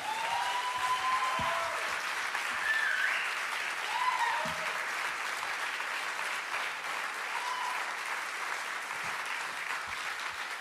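Sustained audience applause fills the whole stretch, a dense, steady wash of clapping with a few brief whistles or cheers rising above it, holding at an even level throughout.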